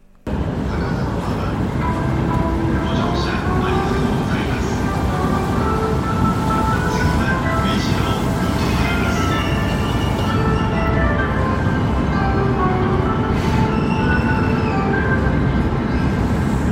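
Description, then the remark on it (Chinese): A bright, chiming departure melody of Takadanobaba Station in Tokyo, Japan, played as passengers get on and off, plays a short stepped tune over a steady, loud rumble of train and platform noise, with no one talking. “我刚来日本的时候，住在东京一个叫高田马场车站的附近，它这里上下车的时候都会有自己车站的一个纯音乐片段。”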